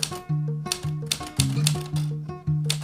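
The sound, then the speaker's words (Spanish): Typewriter keys clack sharply, eight or so strikes in an uneven typing rhythm, fairly loud over a steady humming musical tone underneath. “La vida a través del golpe de teclado.”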